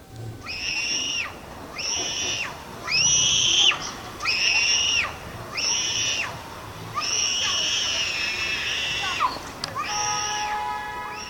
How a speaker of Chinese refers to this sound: 当这个小孩那就看到这个狗以后，就开始尖叫。